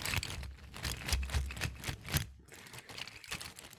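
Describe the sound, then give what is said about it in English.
Hard plastic action figures clack and rattle together in a busy, irregular stream of sharp clicks as someone blindly digs through a pile of them to pull one out, with no voices. “let's pull the action figures. Let's do it. Okay. Providing ambient noise.”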